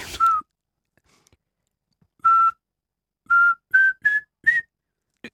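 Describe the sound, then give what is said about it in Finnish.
A human voice whistles an imitation of a pygmy owl's autumn territorial call, which drives other pygmy owls away: a short series of clear, high whistled notes, the later ones rising slightly in pitch, with no talking. “Silloin se, näin kerrotaan, että sen tarkoitus on karkottaa pois toisia varpuspöllöjä siitä.”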